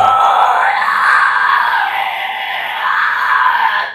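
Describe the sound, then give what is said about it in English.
A loud vocal fry scream, gritty and raspy, held steadily for about four seconds with no talking around it. “Uh, fries are more of like that grudge sound that I told you about.”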